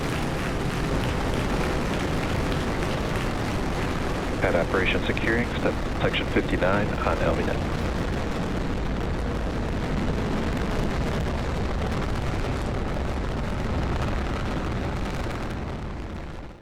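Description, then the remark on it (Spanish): A rocket lifts off after ignition with a continuous, heavy roar of deep rumbling and crackling at steady loudness. A voice is briefly audible over it, calling out that the vehicle is pitching downrange, before the roar slowly eases toward the end. “Vehicle is pitching downrange. Based on propulsion nominal,”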